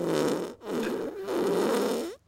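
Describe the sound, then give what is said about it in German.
A loud fart sound effect from a soundboard button plays in three sputtering bursts with brief gaps between them, buzzy and wet-sounding, with no talking over it. “da kannst du auf den Furzknopf drücken.”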